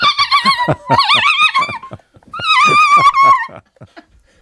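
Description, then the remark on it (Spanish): A dog whimpers and whines in loud, wavering, high-pitched cries with rough growly pulses underneath, in two close bursts separated by a short pause, then trailing off into faint sounds. “Me parece un perro. parece un perro atropellado”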